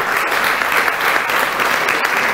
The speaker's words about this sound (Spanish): Denle un aplauso al Señor, grande y fuerte.